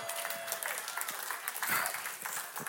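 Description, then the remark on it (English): An audience claps steadily, a dense patter of many hands sustained across the whole stretch at moderate volume, with no voices standing out. “Listen, I'm just gonna say that's worth more than a golf clap.”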